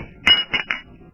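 Three bright glass clinks ring out in quick succession, fairly loud, with a faint shimmering resonance lingering between each tap, like glasses touched together in a toast.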